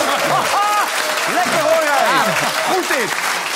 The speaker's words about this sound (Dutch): Applaus, dames en heren!